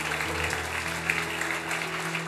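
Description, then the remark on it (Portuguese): A church audience applauds Jesus during a Portuguese-language sermon on resurrection, a dense, continuous wash of many hands clapping at a fairly loud, even level, with a low hum running underneath. “Se você crê, aplauda bem forte a Jesus por isso.”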